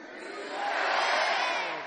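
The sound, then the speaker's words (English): A crowd shouts the word "respect" together on a count of three in one loud, sustained yell that swells and holds for about two seconds, many voices blending into a single roar. “on my count of three, I want everybody to yell respect.”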